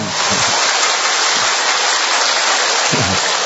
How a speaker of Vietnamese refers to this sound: Một tràng pháo tay thật lớn thưa anh chị em. Một tràng pháo tay nữa thật to thưa anh chị em. Và một tràng pháo tay nữa thật bự thưa anh chị em.